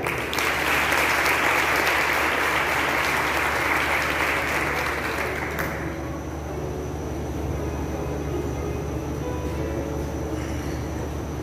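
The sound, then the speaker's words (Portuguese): A crowd applauds loudly with dense, sustained clapping for several seconds, then the clapping abruptly thins out into a quieter, lingering patter over a steady low background hum. “Vamos aplaudir.”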